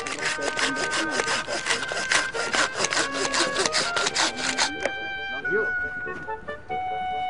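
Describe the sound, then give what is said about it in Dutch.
A hand saw cuts through willow branches in quick, steady back-and-forth strokes for several seconds, then stops, while voices murmur in the background, as a crew of at least 20 volunteers pollard willows in Rozenburg. “Rozenburgse vrijwilligers knotten zelf wilgen”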